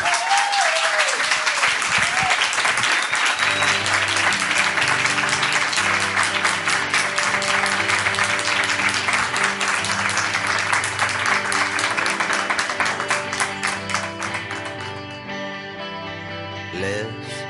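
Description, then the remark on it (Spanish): Loud, sustained applause from an audience for a guest author at the end of her segment, a dense wash of clapping that holds steady for most of the stretch before thinning out near the end, with faint whoops early on. “Fuerte aplauso,”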